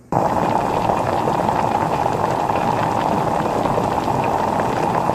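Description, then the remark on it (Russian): A pre-mixed stir-fry sauce boils steadily in a wok while being stirred, a dense, continuous bubbling and sizzling hiss that holds at an even loudness throughout, with no voices. “И помешивайте, пока он кипит.”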